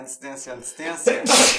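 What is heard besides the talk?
sneeze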